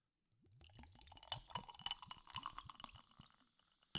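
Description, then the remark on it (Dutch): Fizzy Sir James alcohol-free gin tonic flavour drink pours into a glass with ice, with bubbly gurgles and a steady crackle of carbonation rising through the pour. Fairly quiet, with no talking. “Nou, hij bruist lekker.”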